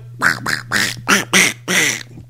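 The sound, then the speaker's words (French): A voice imitates a duck with six nasal quacks in an uneven series, loud, over a steady low hum. “Ça, c'est plus un canard, par exemple.”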